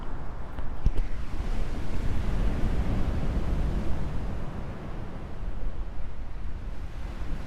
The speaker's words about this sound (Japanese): 今ね海岸に来てるんですよ波の音聞こえますかね